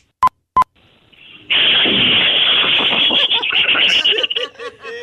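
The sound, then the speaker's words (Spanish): Two short beeps, then a person loudly imitates a toilet flushing with their voice, a sustained rushing hiss breaking into gurgling sputters for about three seconds. “Un toilet flochando.”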